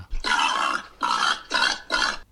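A pig grunts four times in a row, each grunt a rough, throaty burst lasting about half a second, fairly loud and evenly spaced, with no one talking.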